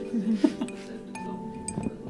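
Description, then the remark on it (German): A mixture of wax and olive oil for an orange salve drips softly into a glass jar, giving a few faint, irregular clinks and small taps against a low, steady background hum. “Wachs und Olivenöl gemischt, in ein Glas getropft.”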